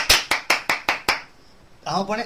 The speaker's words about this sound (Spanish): Claro, Un aplauso para amigo Pampli, por favor